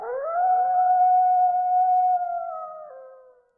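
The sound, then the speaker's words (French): A single wolf howls in one long, sustained note that rises at the start, holds steady, then dips and fades away, clear with no other sounds. “Le loup a chanté un long temps.”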